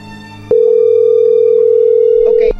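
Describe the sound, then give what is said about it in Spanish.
A single steady, loud ringback tone from an outgoing phone call that goes unanswered sounds for about two seconds, a flat electronic hum over quiet background noise, then cuts off. “Ya no va a responder.”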